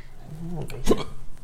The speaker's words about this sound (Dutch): Ja, die hik is wel jammer dat je die nu hebt eh, ontwikkeld.